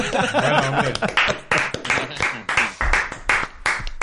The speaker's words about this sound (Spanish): Pido desde aquí un aplauso, pido aquí un aplauso a Jesús Piche